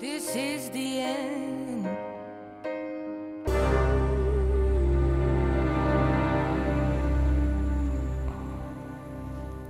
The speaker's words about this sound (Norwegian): Ah, et nydelig stykke musikk.